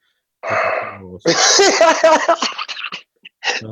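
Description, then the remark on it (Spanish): Loud, heavy breathing close to the microphone, recorded behind the scenes of Pasa la Voz: a long rough exhale followed by strained, voiced huffing and gasping, then a short final breath. “Aquí estamos escuchando la respiración fuerte, rotunda, robusta”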